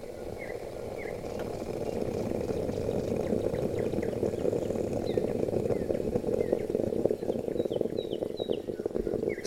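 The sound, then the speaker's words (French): A moka pot brewing coffee on the stove, a steady bubbling gurgle and hiss with small sputtering pops throughout, moderately quiet, with no one speaking. “Ce que vous entendez là est le son de notre euh, cafetière italienne.”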